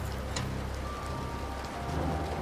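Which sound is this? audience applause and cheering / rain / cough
rain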